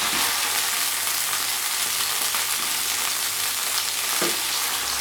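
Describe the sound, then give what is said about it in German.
Steady, loud sizzling of meat being lightly seared in a frying pan, a dense crackling hiss filling the whole clip, with a few faint clinks and scrapes of stirring underneath. “Eine Ladung mal hier aus der Pfanne. Die ist das leicht angebraten.”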